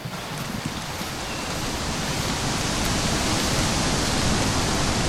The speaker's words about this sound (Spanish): Tenemos que salir de aquí. Ya empezó a llover.